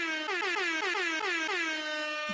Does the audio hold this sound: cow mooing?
no